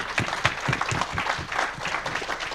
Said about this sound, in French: Ah bah, je crois qu'on peut vous applaudir. Bravo.